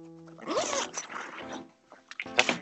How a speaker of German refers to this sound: Ja, wer macht da einen Reißverschluss auf und zu? Ja, sorry, ich, ich habe jetzt meine Tasche für morgen fertig gemacht.